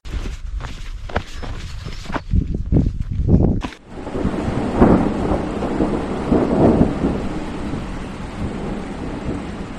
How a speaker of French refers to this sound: Ça, c'était top parce que c'est le moment où un petit orage est arrivé. Euh, ça m'aurait un petit peu ennuyé de me retrouver euh, euh, seul sous cet orage, mais, avec, deux compagnons de route.